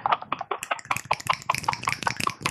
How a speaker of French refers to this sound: Alors, quand tu fais des applaudissements, on ne dirait pas que c'est des applaudissements ici. c'est très gênant.